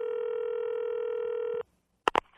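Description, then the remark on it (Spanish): A steady, loud dial tone hums for about a second and a half, then cuts off; after a short silence, two quick bright button beeps of telephone dialing follow. “Voy a contactar con alguien que seguro conoce de estas historias.”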